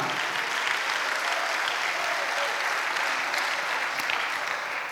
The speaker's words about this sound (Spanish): Dale un aplauso al Señor por eso, amado hermano.